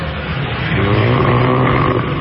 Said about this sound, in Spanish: … manda su propio ronquido